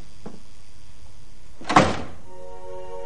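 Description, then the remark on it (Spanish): A heavy security door opens after a secret code is entered on a security keypad, releasing with a single solid thunk and a brief rush of mechanical noise, followed by a faint sustained hum. A soft tap sounds earlier; no one speaks. “Tras introducir una clave secreta en un teclado de seguridad, una nueva puerta se abre.”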